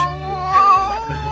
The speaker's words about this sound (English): But kids love talking cats.